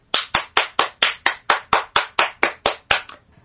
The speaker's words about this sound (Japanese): 一人で拍手してると悲しくなるんで